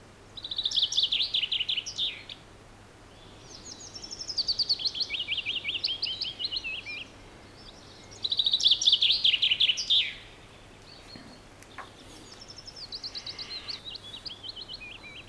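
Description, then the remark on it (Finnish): Recordings of chaffinch and willow warbler songs are played overlapping, each bright phrase lasting about two seconds and alternating in quick succession, clear, with no talking. “Mä laitan soimaan ne vielä nyt päällekkäin. Eli yrittäkää tästä nyt erottaa sitten. Peippo, duuri, pajulintu, molli.”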